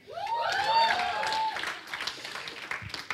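An audience bursts into applause with whoops and cheers rising over the clapping, then the clapping carries on, a bit thinner, filling the room with dense, crackling hand claps.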